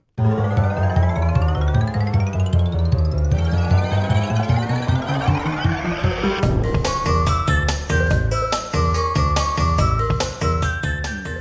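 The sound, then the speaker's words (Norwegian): The Crash Bandicoot 2 main menu music: bright, busy electronic game music with sweeping rising and falling synth tones in the first half, then a punchy rhythmic section of percussive hits and quick melodic stabs. Loud, continuous, with no voices. “Jeg ser jo for meg hele introsegrensen når vi hører på Crash Bandicoot 2 main menu.”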